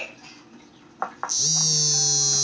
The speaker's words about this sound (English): I don't know if that sound picked up in the audio just now, people, but if it did, my apologies. All right, you're off. That was definitely we talked about this, remember? One of my alarms going off